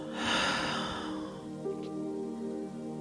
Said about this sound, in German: Wir atmen ein durch die Nase und atmen durch den Mund aus.